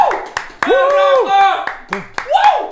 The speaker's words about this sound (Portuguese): Uau, uau, palmas, palmas, mais palmas, mais palmas. Eu exijo palmas. Você aí de casa também bate palma pra casa inteira ouvir.